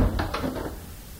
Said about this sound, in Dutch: Het klinkt bijna even het, ja, het lijkt er sterk op. Dus hij imiteert die, die dichtklappende deur van zijn volière.